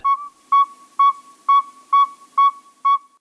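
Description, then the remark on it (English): The second of two male northern saw-whet owls, one of North America's smallest owls, gives a steady series of seven clear, whistled toots, evenly paced at about two per second, each one mid-pitched and fairly loud, with no other sounds. “Here are two males. Listen carefully to the pacing of their hoots.”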